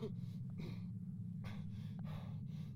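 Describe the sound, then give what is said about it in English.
Heavy, ragged, panicked breathing in and out from a person sitting in the back of a moving van, several quick gasping breaths in an uneven rhythm, fairly loud over a constant low rumble, with no talking. “The only person making noise is whoever sat opposite him, breathing heavily in and out.”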